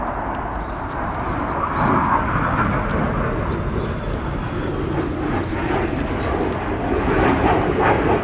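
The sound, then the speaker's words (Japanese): A steady, loud airplane roar fills the whole stretch, a broad rumbling drone that holds constant as the aircraft passes overhead, with no talking. “てかもう今日相変わらず飛行機よく飛びますね。”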